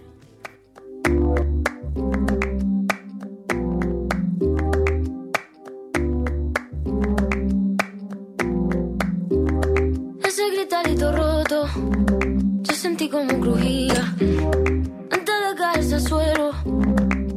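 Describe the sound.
A flamenco pop song with a woman singing over sharp, rhythmic handclaps and deep, punchy bass beats, loud and up close, the vocals growing fuller and more layered toward the end.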